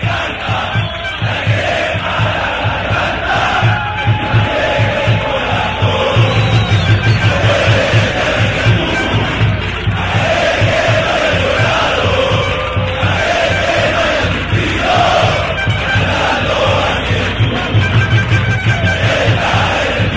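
A large stadium crowd of Alianza Lima football supporters sings a club chant in unison, loud and continuous for the whole stretch, with voices swelling together over a dense roar and steady rhythmic pulses underneath.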